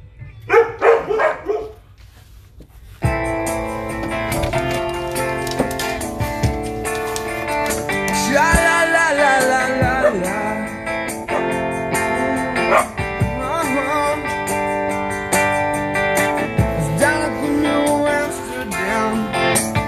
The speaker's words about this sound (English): That's the dogs barking again.